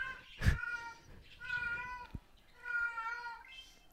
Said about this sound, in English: Yeah, I hear the cat. Someone someone said, "Yo, is, is uh, on poor cat? It's in uh it's heat. In heat, yeah."